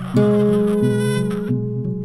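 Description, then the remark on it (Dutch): A small, delicate newborn foster baby girl cries in a loud, sustained, fragile-sounding wail with a slight wavering pitch, steady for about two seconds, with no one talking. “Ze is klein en fijn en als ze huilt klinkt het breekbaar.”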